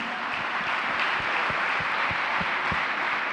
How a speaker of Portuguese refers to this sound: Se você está com expectativa, se você crê que essa palavra pode falar com você, aplauda Jesus comigo.